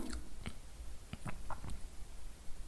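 A few soft, wet swallowing sounds: brief gulping clicks and squelches scattered over a couple of seconds against a quiet background, with no one talking. A patient swallows on request while the thyroid gland is felt during a medical examination.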